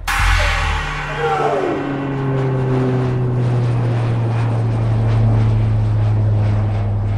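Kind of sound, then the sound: vehicle, airplane engine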